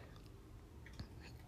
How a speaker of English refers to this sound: so sorry if you hear Luna chomping in the background.